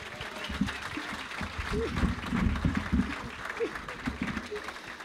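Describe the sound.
An audience applauds steadily for several seconds, a dense crackle of many hands clapping at once, with scattered voices and cheers mixed into the noise.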